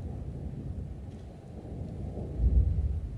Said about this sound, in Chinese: 这个是主震的到来，汶川大地震主震。再注意听，余震到来了，又一个余震。又一个余震到来了。